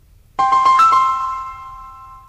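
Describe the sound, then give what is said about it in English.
A T-Mobile jingle: a handful of quick, bright electronic notes that ring out and slowly fade. It plays loud, alone, with no voices. “The answer is T-Mobile.”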